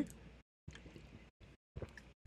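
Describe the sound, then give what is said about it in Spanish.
Someone drinks water with four soft gulping swallows separated by brief silent pauses and faint wet, gurgling texture. No talking. “Perdónenme si estoy toma y tome agua.”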